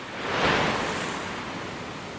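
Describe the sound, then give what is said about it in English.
A dense, steady roar of water crashing down the four-story curved walls of a large fountain water feature, falling from all around, swelling early then holding at a loud, enveloping rush, with no voices. “Rising four stories high, the water comes crashing down from all around you.”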